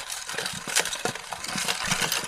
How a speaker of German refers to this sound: Ich äh, würde jetzt noch mal im Koffer, Koffer wühlen.